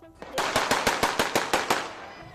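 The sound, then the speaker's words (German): A masked man fires a weapon several times into the air: a rapid burst of about nine gunshots in quick, even succession, sharp and cracking over a noisy outdoor background, with no talking. “in dem ein Berliner Feuerwehrbeamter befragt wird und dann ein vermummter Mann zunächst eine offenbar politisch gemeinte Geste zeigt, ehe er mit einer Waffe mehrfach in die Luft schießt.”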